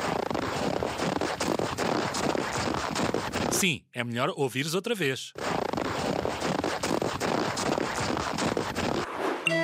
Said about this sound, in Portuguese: E a resposta correta é. Alguém a andar sobre a neve.